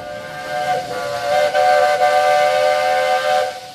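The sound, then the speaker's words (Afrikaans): A train's whistle blows in one long, sustained chord, loud and steady for several seconds with a few slight dips, over a low rumble of the train arriving from the Cape. “Ons is nou baie baie opgewonde want hier's 'n trein besig om in te kom.”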